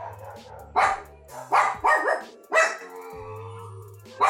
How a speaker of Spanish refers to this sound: Pero íbamos en la combi y de pronto dije, oh no, oh no, el perro se volvió loco. Escuchen.